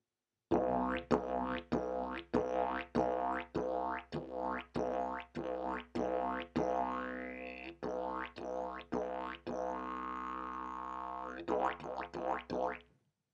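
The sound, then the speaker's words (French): A didgeridoo drone, played in the Aboriginal way of imitating nature, punctuated by rapid, bouncy 'boing' pulses in a steady rhythm mimicking the hops of a kangaroo, Australia's emblematic animal, with a brief sweeping whoop midway and the hops quickening toward the end. “les aborigènes imitent aussi les sons de la nature qui les entoure. Le, le saut du kangourou, par exemple”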